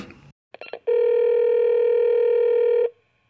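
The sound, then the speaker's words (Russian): A few quick dialing beeps are followed by one long, steady electronic ringback tone lasting about two seconds, clear, with no voices, as a phone call to a doctor is placed during an Echo of Moscow radio broadcast. “Давай ему позвоним и спросим, переоценен ли секс и что он скажет.”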